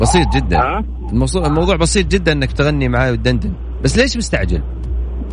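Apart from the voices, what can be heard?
car driving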